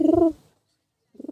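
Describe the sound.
A person imitates a pigeon's coo with two short, throaty, warbling bursts separated by a brief silence, fairly loud.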